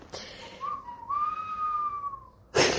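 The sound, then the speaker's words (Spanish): A person whistles a slow, eerie note that swells slightly upward and then sinks, held for about two seconds, clear, followed by a short breathy rush of air. “Hace un silbido así de, de como chungo.”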